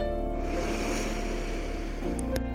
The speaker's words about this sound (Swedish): Tre ujjayi-andetag. Lätt motstånd i halsen på din utandning. Andas in.